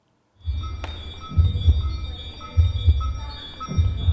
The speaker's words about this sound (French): ces sons, ces bips que vous entendez, ils viennent d'une centaine de boîtes noires en aluminium. À l'intérieur, il y a des écrans avec des décomptes et parfois des mots apparaissent.